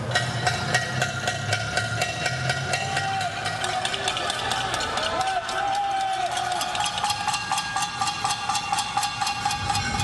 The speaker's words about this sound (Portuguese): Panelaços contra o presidente Jair Bolsonaro eram ouvidos em diferentes cidades do país.